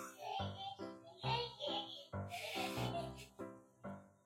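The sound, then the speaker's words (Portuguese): A young child laughs and squeals in quick, excited bursts while running around the house, fairly loud, with short breaths between the playful cries. “É, ele tá correndo e rindo pela casa.”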